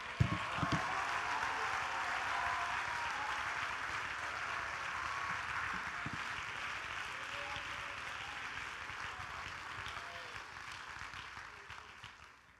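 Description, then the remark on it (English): An audience claps their hands unto the Lord in a dense, steady roar of applause that holds for about twelve seconds, with voices mixed in beneath it, before tapering off slightly at the end. “Somebody lift up your voice and clap your hands unto the Lord.”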